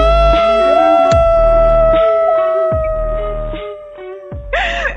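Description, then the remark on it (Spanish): A loud, drawn-out shout held at a steady pitch for several seconds, with rhythmic bursts of noise beneath it and a sharper cry at the very end. “Teníamos guardado ese grito.”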